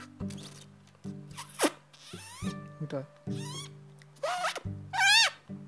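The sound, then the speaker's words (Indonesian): A mouth-made beatbox zipper sound, imitating pulling a zipper, repeated in quick bursts: sharp rising, squeaky zips produced by closing the lips and sucking air in from the left side, alternating with low humming tones and a brief spoken word. “tuh tuh namanya zipper dari kalau gua dapetnya dari kiri gua tarik anginnya kalian napas di bibir napas aja biasa cuma bibir kalian kayak dikesetin gitu jadi kayak gitu jadi beda ya.”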